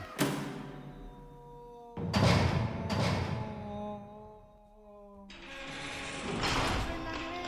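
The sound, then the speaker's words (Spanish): A heavy metal door of a prison isolation cell clangs shut and is locked on a prisoner, with several loud mechanical clanks and ratcheting bolts, each leaving a ringing metallic resonance. “Grité mientras me cerraban.”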